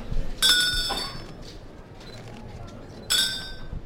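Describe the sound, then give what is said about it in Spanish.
Two bursts of bright, metallic hand bells clanging over a low murmur: a muñidor of the Hermandad de la Mortaja, ahead of the guiding cross on Good Friday at the Convento de la Paz, calle Bustos Tavera, raises a handle with a bell at each end from hip to shoulder in a cadenced rhythm. “este muñidor, un hombre que con un asa a cuyos extremos hay dos campanas, va elevándola desde la cadera al hombro en un ritmo cadencioso que anuncia el amortajamiento de Jesús en este Viernes Santo.”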